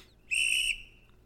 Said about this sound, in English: A nice blast of the whistle. Now, if someone then refuses, refuses to adhere to the referee's whistle, when that sound happens, you're in trouble.